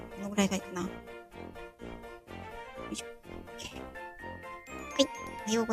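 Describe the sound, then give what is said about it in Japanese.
Light, tinkling background music for a livestream plays at a moderate level while its volume is being set, with chiming melodic notes over a steady beat, continuing throughout without any talking over it. “えっ、ー、と、最初に BGM の設定をしようかな。音量設定。”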